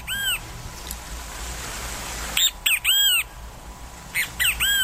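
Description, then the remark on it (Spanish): A great kiskadee (venteveo) calls loudly, giving harsh, ringing notes in short bursts: one at the start, then a quick series after a pause, and a final pair near the end. “El venteveo es un pájaro muy común en el país.”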